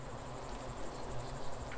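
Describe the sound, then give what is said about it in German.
A steady, continuous drone of buzzing bees at a guest house in Grottole, a small village in southern Italy, a low hum with a busy swarm-like texture that holds evenly throughout without any voices. “Und bei den Geräuschen könnt ihr euch schon denken, dass die beiden Bees in Airbnb und B für Bienen stehen.”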